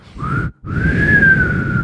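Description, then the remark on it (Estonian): A person whistles a short note, pauses briefly, then holds a longer, steady tone that rises slightly and settles back, fairly loud over a low rumbling background. “kas see on see vile, mida me nüüd, me nüüd puhuma hakkame?”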